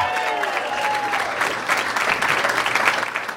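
A crowd claps steadily for a few seconds, a dense, sustained wash of applause with faint whoops mixed in, fairly loud and close throughout.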